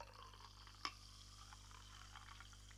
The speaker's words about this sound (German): Ich werde jetzt mal ein bisschen Ah, meine Flasche mal kurz hier aus der Ecke holen, mir mal kurz was einschinken und meinen äh, trockenen Mund ein bisschen befeuchten.